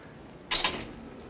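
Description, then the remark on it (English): A short door-opening effect: a quick, bright whoosh-like swing that rises sharply and fades within about half a second, heard alone against quiet background. “Sometimes the door opens,”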